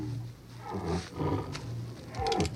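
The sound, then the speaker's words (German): A tiger, springing toward riders, roars in several deep, rumbling bursts with a low growling undertone, loud and rough, rising and falling over a couple of seconds with no talking. “Tiger. Fürstin. Heranspringend, wie sie ihn vor kurzem auf der Bretterbude am Markt gemalt gesehen hatte, kam das Tier entgegen.”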